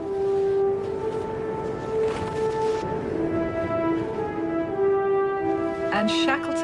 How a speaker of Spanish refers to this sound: Entonces Shackleton oyó el sonido del silbato del puesto de Stromness, o oh, eso pensó. No estaba seguro. A las 7 en punto, todos lo escucharon. Y ahí estaba otra vez, el silbato que llamaba al trabajo.